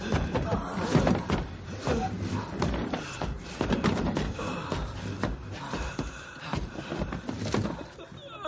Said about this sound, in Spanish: Manis camina arrastrando una silla y va dejando un reguero de sangre.